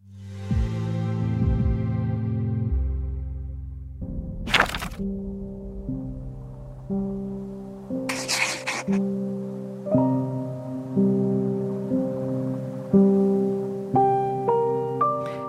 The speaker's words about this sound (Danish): Det du hører her, det er lyden af et dansk computerspil univers, som netop har vundet en international pris i Berlin. Og det her computerspil, der hedder Stilstand, og det er sådan en mere interaktiv tegneserie,